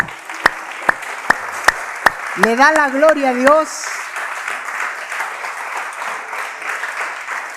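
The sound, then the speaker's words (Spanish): A church audience in Ciudad Miguel Alemán, Tamaulipas, claps hands in steady unison, sharp regular beats, then breaks into a continuous wash of applause that fades and lingers. A man speaks briefly over the clapping. “¿Por qué no junta sus palmas?”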